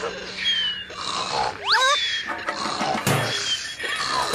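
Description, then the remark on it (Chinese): A farmer's small chickens, worn out from laying eggs all day for Easter, snoring loudly, with repeated rough, buzzy snores broken by a brief squeaky rising whistle, over a steady bed of other background sound. “这么小的鸡打呼好大声哦！”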